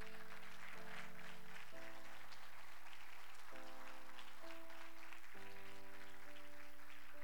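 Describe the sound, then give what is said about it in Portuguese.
An audience at a church service claps steadily in praise of Jesus, a dense, continuous patter of many hands, while sustained keyboard chords shift underneath every second or two. Nobody speaks. “Aplauda Jesus por isso.”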